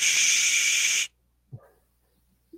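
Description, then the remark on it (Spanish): A voice imitates white noise to show what it sounds like, with a loud, steady breathy hiss lasting about a second, then stops abruptly, followed by silence and a couple of faint low sounds. “trae un ruidillo ahí medio extraño en la transmisión, como ruido blanco.”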